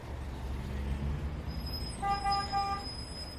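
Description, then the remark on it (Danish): A big truck rumbles in at a sunscreen factory's warehouse to collect palletised goods, its low engine drone filling the background, then it gives one firm horn toot lasting just under a second. “Og så, når det er tappet ind i tapperiet, så kører det ud til vores lager, og så står det derude og venter på, at der kommer en stor lastbil og henter det.”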